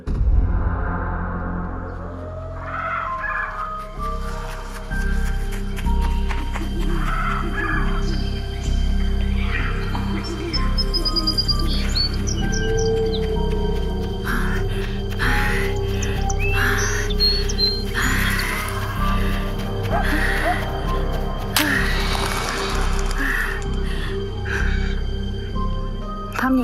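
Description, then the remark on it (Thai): A designed 3D nighttime forest ambience, full of overlapping nocturnal animal calls, chirps and trills layered over a steady low rumble, continuous and fairly loud throughout. “เราจะได้เห็นแอมเบียนบรรยากาศเนาะเราจะรู้สึกว่าเอ้ยตอนนี้เป็นตอนกลางคืน อยู่ในป่าหรือเปล่าเพราะว่ามันให้เสียงสัตว์อะไรบางอย่าง ที่เอ๊ะเป็นสัตว์กลางคืนนะ”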